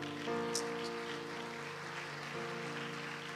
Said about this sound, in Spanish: Ah, dele palmas al Señor una vez más, hermano.